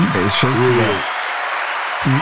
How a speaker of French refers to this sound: Eh bien, merci beaucoup. Applaudissements pour lui. Merci.